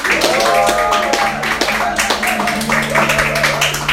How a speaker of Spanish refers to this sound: yo quiero que este grito de júbilo y aplauso sea para ellos